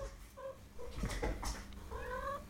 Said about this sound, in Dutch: Ik word helemaal gek van die katten.